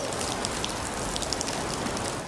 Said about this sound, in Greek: Και μέσα στην πόλη η ισχυρή βροχόπτωση μετέτρεψε του δρόμου σε ποτάμια.